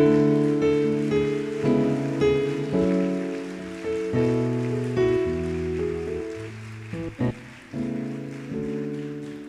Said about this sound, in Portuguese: Se você pode, aplauda ao Senhor bem forte, amém?